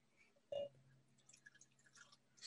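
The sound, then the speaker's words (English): A single wet plop of sake hitting a glass as it is poured, followed by faint, scattered trickling and dripping sounds, quiet, with no voices. “How much of this do you want me to pour in here is the question.”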